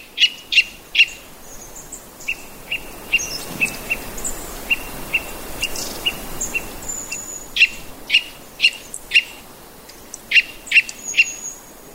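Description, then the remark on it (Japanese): A white-bellied Eurasian nuthatch gives repeated sharp, high-pitched non-breeding call notes, loud and evenly spaced in bursts, ringing through a winter forest of bare trees, with fainter bird chirps scattered among them over a soft background hiss. “ちなみに今朝お聴きいただいているのは地鳴きと呼ばれる繁殖期でない時の鳴き方です白原五十からの地鳴きがこうして森によく響くのも木々が葉を落とし他の鳥や虫が静まり返った冬ならではでしょう。”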